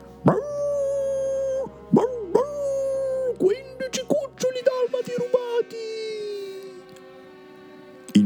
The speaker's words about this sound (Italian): A Pongo venne allora un'idea. C'è il telegrafo del crepuscolo, disse a Peggy. Se i nostri cuccioli sono ancora in città, i cani di Londra lo verranno a sapere. Pongo incominciò ad abbaiare in uno speciale codice